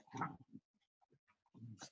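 An English Bull Terrier snorts and grunts in short, piggish bursts while playfully attacking its owner, with a quiet gap of small snuffles between two louder bouts, like playful rough-housing.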